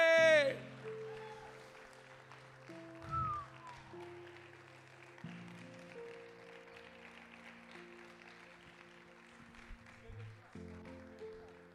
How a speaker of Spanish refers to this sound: Dale un aplauso fuerte, ponte de pie, dale un aplauso fuerte.